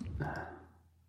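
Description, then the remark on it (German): A couple of faint, quick clicks close together, like a computer mouse being pressed while surfing the internet, over a soft low hum and a breathy murmur that fades out. “Du klickst so herum.”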